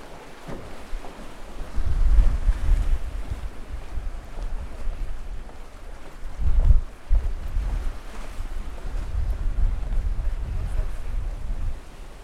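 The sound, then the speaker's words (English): Outdoor ambience at a pier: steady wind buffeting the microphone with low rumbling gusts, and waves washing in the background, swelling louder around a couple of moments. “Here's my experience of the pier”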